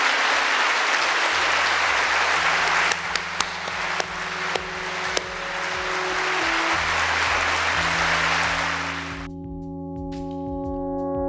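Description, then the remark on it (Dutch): A large audience claps steadily for about nine seconds at the end of a Studium Generale lecture evening at Utrecht University, a dense, sustained wash of applause while soft music plays underneath; the clapping then stops and only the music continues. “Mag ik een heel groot applaus voor professor.”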